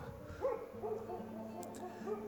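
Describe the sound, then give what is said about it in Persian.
Faint dogs bark outdoors on a plain, with mountains in the other direction, a few scattered yelps and barks rising over a steady low background hum, with no one speaking. “روبروم کوهستانه و پشت سرم دشت و میشه از صدای سگ ها فهمید”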